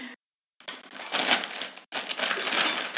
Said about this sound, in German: Ja, jetzt, wir machst mal da die Kekse auf. Ah, ja, genau. Und ähm, genau, mach die Kekse auf. Jetzt da noch ein bisschen Sound.